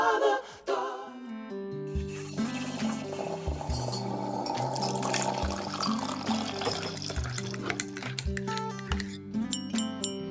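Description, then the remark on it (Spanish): A teaspoon clinks and stirs in a coffee cup, with liquid sloshing, set over steady sustained musical tones and a low bass line; sharp little chimes stand out throughout, and no one speaks. “Óyela ahí, esa cucharita que dice que estamos en café.”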